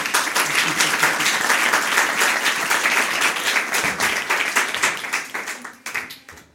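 An audience applauds with a dense, steady patter of many clapping hands, holding loud for several seconds before thinning into scattered claps and fading out.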